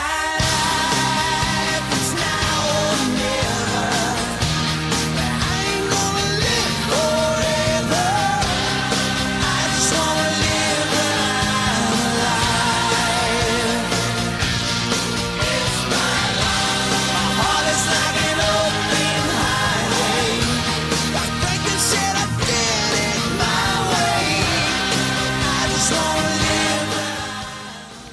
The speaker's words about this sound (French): … de …. on va l'écouter un petit peu puis on va en parler après